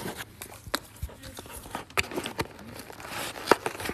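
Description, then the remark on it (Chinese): Crinkling plastic wrapper sounds with sharp crackles and tearing bursts, irregular and fairly loud, as a snack package is worked open; no one speaks. “啊，我看下这个是啥呀？能开吗？”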